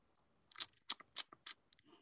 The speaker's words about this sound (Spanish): escucho un teclado ahí.